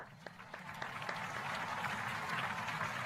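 A crowd applauds a guest arriving on a live broadcast, many hands clapping in a dense, steady wash, with a few sharper individual claps standing out early before the sound evens into continuous applause.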